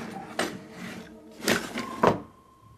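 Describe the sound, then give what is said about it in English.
A drawer is pulled open and its contents are rummaged through in search of a Sunday school book, with three distinct wooden knocks and slides spaced about a second apart, moderately loud, with no talking. “Did mom put it in my drawer?”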